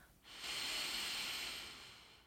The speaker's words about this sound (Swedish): Tar ett djupt andetag in genom näsan, fyller upp hela bäckenbotten och naveln, magen.